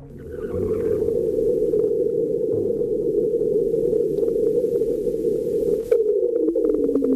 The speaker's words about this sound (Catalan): Aquí ha arribat l'ona. Això és un terratrèmol a Mart. Sí, sembla un lavabo, però és un terratrèmol.